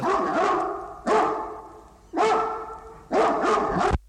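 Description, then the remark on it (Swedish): A dog barks four times in a steady, evenly spaced series, each bark loud and slightly drawn out with a rough, sustained tone, played from a 1971 sound-effects vinyl record of barking dogs. “Men det är typ samma hund, är det inte det?”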